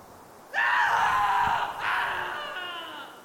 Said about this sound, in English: The sound of a man crying out in horrified agony.